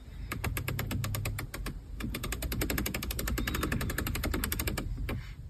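Rapid, evenly spaced clicking from a car's center console rotary controller, a ring that can be pressed as a button and has a touch surface inside, dozens of crisp detent ticks in a steady run lasting several seconds, with a low hum underneath and no talking.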